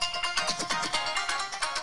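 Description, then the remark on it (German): A tinny, thin-sounding Indian music beat plays through a smartphone speaker, with quick, steady rhythmic pulses and bright melodic tones but almost no bass. It is moderately loud, with no one talking. “Aber der Beat geht schon.”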